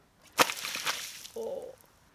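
A sudden, loud splash as water is flung from a bucket, a sharp hit trailing into a second of hissing spray, then a brief higher-pitched tone before things go quiet.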